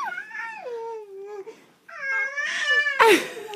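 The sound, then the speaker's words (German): A baby boy cries in two drawn-out, wavering wails separated by a brief pause, the second louder and more strained, with no talking. “Ah, vielleicht schreit er deswegen.”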